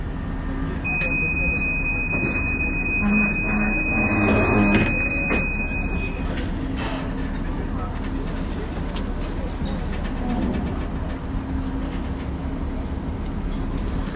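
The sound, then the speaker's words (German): A steady, piercing warning buzzer sounds for about five seconds over a loud mechanical rumble as the captain extends the drawbridge ramp of a ferry on line 64 at a stop near Finkenwerder while cyclists board, then the heavy machinery hum continues on its own. “Wenn jetzt die Klappbrücke durch den Kapitän ausfahren. Zurückbleiben bitte.”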